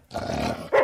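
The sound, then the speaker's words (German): In a pawnshop, a dog growls low and rumbling for most of a second, then breaks into a sharper, louder snarl at the end, with no talking. “Das ist ein Hund.”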